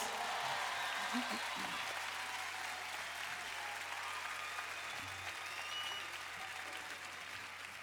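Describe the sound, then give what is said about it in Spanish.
Steady, dense applause from an audience for people who make music in church (guitarists, singers, drummers, tambourine players, music ministry members) fills the whole stretch, a broad hiss of many clapping hands that stays fairly even and tapers slightly toward the end. “Un aplauso para todos ellos y ellas.”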